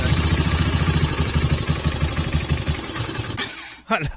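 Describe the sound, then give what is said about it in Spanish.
A motorcycle engine sputters and idles unevenly for a few seconds, its low rumble pulsing irregularly before cutting out with a brief clatter near the end. “fíjate que esa moto como que necesita ah, un su servicio e irle a comprar repuestos vos”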